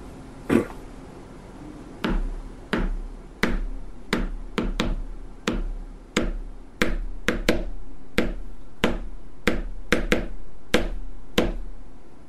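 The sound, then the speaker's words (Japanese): A series of sharp, hollow taps on a box, about twenty strikes in an uneven, loose rhythm, each a crisp knock with a quick decay, with no voices over it. “その箱を叩いてごらんえ巻きだっぽってこれでこの箱、どのようにいや、お前の好きなように叩いていいんだよ。”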